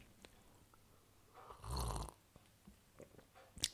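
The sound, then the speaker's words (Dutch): A single sip of a drink: one soft, breathy slurp lasting about half a second, framed by quiet mouth clicks and faint swallowing noises, with no talking. “Maar ja, oh sorry, ik, ik neem even een slokje drinken, even ASMR.”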